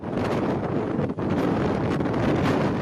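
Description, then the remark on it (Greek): Strong storm wind of over 90 km/h roars and buffets steadily on Rhodes in the Dodecanese, Greece, a dense low rumble battering the microphone with only a brief dip in the gusts; no one speaks. “Ισχυρή άνεμη ταχύτητα πάνω από 90 χιλιόμετρα την ώρα προκάλεσαν γιγάντια κύματα που ξύλωσαν ακόμη και την άσφαλτο στην παραλία Αφάντου τη Ρόδου.”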